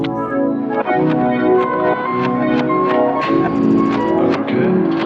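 A rap track plays loud, with a steady thumping beat and sustained melodic backing tones running continuously throughout.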